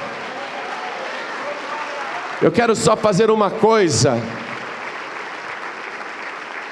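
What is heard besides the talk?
audience applauding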